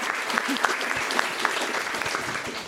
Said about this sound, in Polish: Proszę o brawa dla naszych gości, słuchajcie, na ten moment, ale to nie koniec, absolutnie.